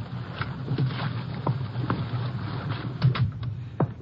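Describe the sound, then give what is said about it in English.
A river boat's engine drones low and steady beneath a broad wash of moving water, with a few light knocks and creaks scattered throughout. No one speaks. “I know these river boats quite well.”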